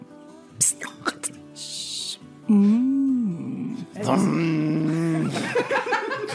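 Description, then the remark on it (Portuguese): A voice imitates a coffee machine slowly starting up: a few mouth clicks and a short hiss, then two drawn-out, wavering hums and groans, fairly loud. “Demorou um pouco para a cafeteira ligar.”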